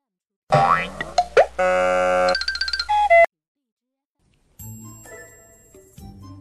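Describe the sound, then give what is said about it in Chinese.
An electronic alarm clock rings with bouncy, boinging tones, a quick rising sweep and steady held beeps that stop abruptly, followed after a pause by a softer, quieter melodic tone. “爸爸，闹钟怎么不叫了？”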